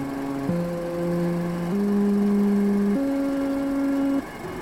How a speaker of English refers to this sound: described by the artist as a performance for projector, harmonium, and tone tuned to one another